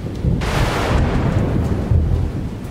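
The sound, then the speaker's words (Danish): A deep rumble of distant thunder rolls continuously after lightning splits the sky in the distance, with a brighter crackling burst early on and low, heavy rumbling sustained throughout; no voices are present. “For pludselig flækker et lyn himlen i det fjerne og lyser alting op.”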